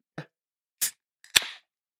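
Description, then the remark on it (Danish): A beverage can is popped open: a light tap, a metallic click, then a sharp crack of the tab followed by a brief fizzing hiss. No one speaks. “det tænker jeg, fordi de har det jo med at være ret fulde, de dåser.”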